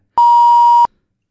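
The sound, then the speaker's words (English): A single steady censor bleep, a pure electronic tone held for about two-thirds of a second, loud and clean with abrupt start and stop, covering a spoken Square username. “I don't think if you think we have to bleep this out, we can bleep it out.”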